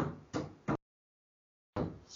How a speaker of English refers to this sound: And sorry, everybody, you guys can probably hear my kid just banging at the door there.